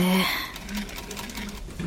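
A sewing machine whirs along in a rapid, steady mechanical rhythm of fast repeated stitching clicks, running continuously at moderate volume.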